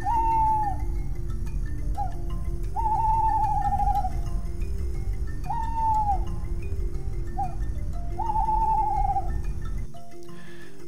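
An owl calls again and again at night, five wavering, quavering hoots spaced a couple of seconds apart, clear over a steady low rumble of background noise that cuts off near the end.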